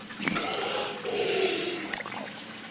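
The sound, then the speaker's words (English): A large green sea turtle surfaces to breathe, giving a breathy whoosh of air mixed with watery splashing and trickling over a couple of seconds. “If you're wondering what that sound is, it's the sound of a large green sea turtle taking the occasional breath.”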